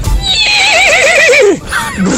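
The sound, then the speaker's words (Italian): A horse whinnies loudly, a long quavering neigh that wobbles and falls in pitch, followed by a short snort at the end. “Questo si è trasformato in, in cavallo.”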